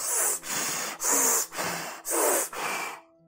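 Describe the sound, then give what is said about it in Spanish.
Six forceful breaths in quick succession, each a loud, airy rush about half a second long with brief gaps between, then the sequence stops abruptly; a breathing exercise done to change one's emotional state. No talking. “Otra manera de alterar tu estado es cierrar los ojos y cambiar tu enfoque. ¿En qué te vas a enfocar? En el resultado. Y cambia tu respiración.”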